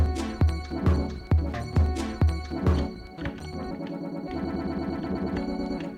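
A punchy beat with regular low thumps is abruptly warped mid-way by a live time-manipulation effect, an alter.audio Timetosser, turning into a smeared, stuttering, repeating texture as the groove is stretched and looped in real time.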